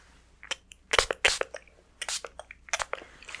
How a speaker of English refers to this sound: I'm gonna spray this on your face and I want you to tell me if this is warm or cool. It's warmer, cool, Warmer, cool. Ready? Warmer, cool? Cool. Okay, I'm gonna get another one, a different bottle, and I'm gonna spray this one.